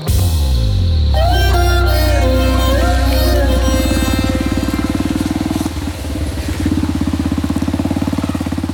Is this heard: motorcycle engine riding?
yes